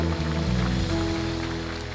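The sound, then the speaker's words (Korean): A church audience claps together in worship, applause of praise to the Lord, in a dense, steady wash, loud and continuous, with low sustained instrumental tones humming underneath and no voices. “우리 주님 앞에 영광의 박수로 경배의 박수로 우리 믿음의 고백으로 나아갑시다.”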